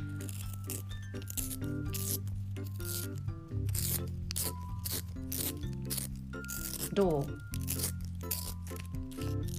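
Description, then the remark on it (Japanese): A wooden pencil sharpener shaves a metallic colored pencil bought at a 100-yen shop in quick, repeated rasping turns, a steady scratchy grinding with a sustained tonal hum underneath; a voice briefly speaks. “このウッド木でできた鉛筆削りなんですけどちょっとここにゴミをこうか鉛筆削りの音が好きで心が整う気がするんですよちょっとみんな聞いて。”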